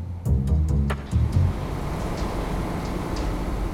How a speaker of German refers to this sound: Unser Zug nähert sich Zürich und spätestens hier wird augenfällig, die SBB ist ein Immobiliengigant.